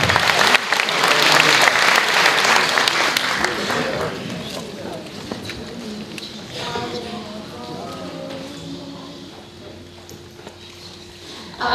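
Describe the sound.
A burst of audience applause for the coordinating teacher from Târnăveni, loud and dense clapping for about four seconds, then thinning out as a voice begins speaking over the fading claps.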